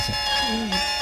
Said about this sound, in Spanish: Sí, y además ahora suena un clarinete bajo, que es como si tu coche estuviera ahí pitándole a, las cabras. A las ovejas.